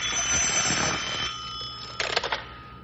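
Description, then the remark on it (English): A telephone rings with a loud, rattling metallic bell, a sustained jangling peal that fades, then a short quick burst of rapid strikes near the end. No one speaks. “Phone's ringing.”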